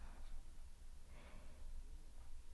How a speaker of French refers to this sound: Donc je vais vous je vais prendre une grande respiration. Je vais me calmer les nerfs.